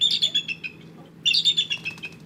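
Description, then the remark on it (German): A young bald eagle named Challenger, one that could not be released into the wild, gives two bursts of high, thin chittering calls, rapid piping notes that tumble downward in pitch, separated by a short pause. “Alle Versuche, den jungen Bald Eagle freizulassen, scheiterten.”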